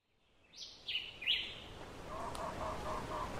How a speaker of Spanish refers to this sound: Y quiero que escuchen los contrastes del bosque de Oaxaca. Fíjense que ya fuimos al bosque nacional del Yunque, fuimos al bosque seco en Huánica. Y este bosque tiene una gran variedad de diferentes aves, tiene gran vegetación